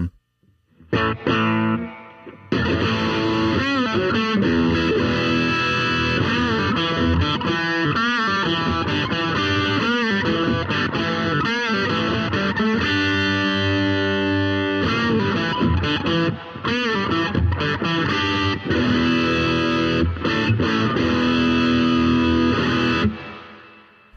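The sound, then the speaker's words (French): An electric guitar on its bridge humbucker pickup, played through a Sir Riot Reloaded distortion pedal, plays a loud, dense run of chords and riffs with thick harmonic sustain, continuing for about twenty seconds before cutting off, with no voices. “On va voir ce que ça donne maintenant avec euh, la Sir Riot Reloaded. Je suis de retour sur le Humbucker Bridge.”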